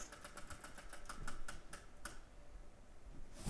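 A prize wheel clicks rapidly as it spins, the ticks spacing out and slowing until they stop after about two seconds. Quiet, with no voices.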